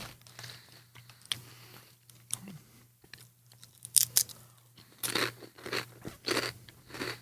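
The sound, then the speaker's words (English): Crunching of potato chips being chewed, irregular crisp bursts that grow louder and denser toward the end, with a low steady hum underneath and no talking. “I went and pulled big four on four, but that just tastes like a mess of chip.”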